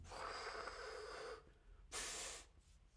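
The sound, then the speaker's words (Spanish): A person imitates a cat's hiss with two breathy bursts: a longer, rougher exhale followed after a short pause by a sharper, brighter hiss, both fairly loud. “Los gatos bufan, bufido, sí, hacen”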